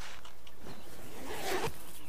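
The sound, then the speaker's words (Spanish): A backpack zipper is pulled open in a quick raspy sweep, rising to a brighter, louder zip near the end, with no one talking. “Y has abierto tu mochila.”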